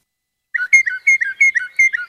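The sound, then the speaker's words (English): A northern mockingbird calls in a quick run of bright, whistled two-note phrases, repeated about seven times in a steady rhythm, clear with no voices. “Here's the mockingbird.”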